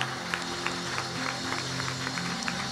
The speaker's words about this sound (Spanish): Y amén. Dele un aplauso fuerte